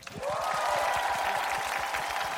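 A burst of audience applause welcoming a reporter on stage, dense and steady, with many hands clapping at once for a couple of seconds. No one speaks, and a faint sustained tone hums beneath the clapping.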